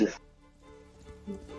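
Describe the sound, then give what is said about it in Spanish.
A single sharp sneeze bursts out right at the start, then fades into quieter background sounds with some faint, indistinct voice activity. “Salud, por cierto.”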